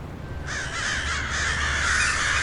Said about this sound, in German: Plötzlich sprangen alle Krähen mit einem ohrenbetäubenden Lärm auf, übertönten sogar alle Geräusche des Hafens bis sie in der ungewöhnlich frühen Dämmerung verschwunden waren.